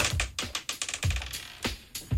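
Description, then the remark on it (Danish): A die is rolled across a hard tabletop to pick a predicted Oscar winner, a quick run of irregular, sharp clicks and knocks, fairly loud, before settling on an even number. No one speaks. “Det blev en lige Bohemian Rhapsody, siger terningen.”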